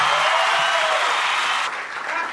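A crowd claps steadily in a dense, continuous wash of applause that stays loud throughout, dipping slightly near the end without any voices standing out.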